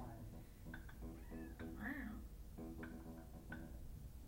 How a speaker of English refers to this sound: Oh. Oh, there are kitties. There are kitties.